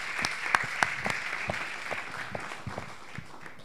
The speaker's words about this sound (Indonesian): Oke, makasih. Kita berikan tepuk tangan dong, luar biasa.